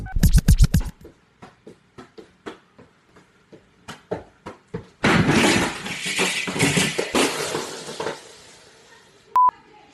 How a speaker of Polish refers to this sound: W pewnym momencie nie trafia i kopie w stolik, na którym stoi telewizor, który przewraca się, a do pokoju wchodzi kilkuletnia córka i partnerka mężczyzny.